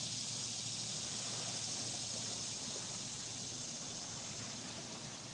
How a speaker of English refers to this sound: You can hear the river in the background hear the cicadas.